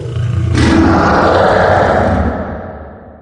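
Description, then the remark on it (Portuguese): A person imitates a lion's roar with their voice, the roar of a Nemean lion in a computer game: one loud, sustained, growling bellow lasting a few seconds, slowly fading out. “surgiu um leão de Nemeia de cada um deles. E os dois se encontraram, tipo, no meio de uma floresta, assim, mais ou menos, e os dois rugiram ao mesmo tempo.”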